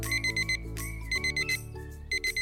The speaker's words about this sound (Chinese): 每天早上，他的闹钟就会开始响。